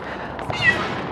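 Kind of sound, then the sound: animal, domestic cat meowing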